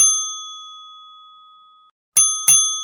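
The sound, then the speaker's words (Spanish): A bright bell rings once and its clear tone lingers before fading to silence, then two quick dings follow close together, marking the middle of a program. It is loud, with no talking. “El timbre indica mitad de programa aquí en alguien que nos aloje”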